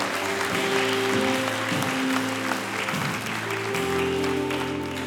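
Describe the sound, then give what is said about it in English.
A large audience at a Resurrection Sunday church service applauds steadily for several seconds to encourage the people who have just given their hearts to Jesus. A dense wash of clapping at a loud, even level, with sustained organ or keyboard tones underneath. “Come on, let's clap.”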